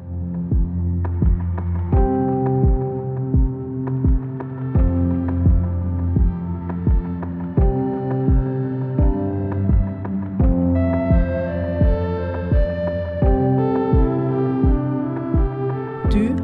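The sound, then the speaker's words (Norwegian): Mellow instrumental theme music composed by Andreas Reite, with a steady, thumping beat under warm sustained chords and a deep bass, brightening with higher melodic notes toward the end; no voices. “den musikken du har hørt, den er laga av Andreas Reite.”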